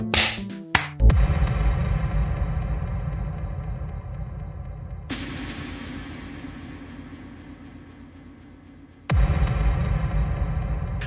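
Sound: hand clap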